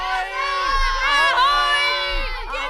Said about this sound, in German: Die Realschüler jaulten vor Begeisterung.